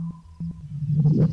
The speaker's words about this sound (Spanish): escucharás una señal de código Morse. Gira lentamente para centrarlo, pero ten cuidado porque puedes perderlo pues la brújula es muy sensible. Recuerda que en el modo de brújula no puedes caminar, solo escuchar. Ok, buscamos el morse. Ahí está.